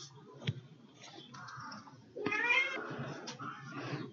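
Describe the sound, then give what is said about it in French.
A cat meows loudly and insistently, one drawn-out, wavering cry rising then trailing off, followed by a longer, louder yowl with a few shorter mews around it. No one speaks. “J'aurais pu couper, désolé pour les bruits du chat, mais je trouvais ça vraiment marrant et joli parce qu'effectivement, on entend euh,”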